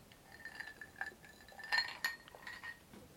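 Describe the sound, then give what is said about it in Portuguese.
Glass clinking as someone has a drink: several light, ringing taps and chimes scattered over a few seconds, with a couple of brighter strikes in the middle and no talking. “E agora eu vou molhar o bico.”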